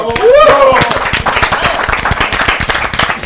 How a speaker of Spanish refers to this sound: Ya, pues aplausos, la verdad, que padre.